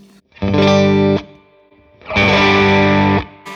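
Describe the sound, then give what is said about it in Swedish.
An electric guitar played through a Heavy Hand overdrive pedal plays two loud, buzzing sustained chords, the second held longer than the first, with brief quiet between them and no talking. “Den här låter nog mera alltså som att Eh, nu är det väl mindre eh, botten i den här eh, heavy handen, men det kändes som att den får mer en mellanregister tryck sådär.”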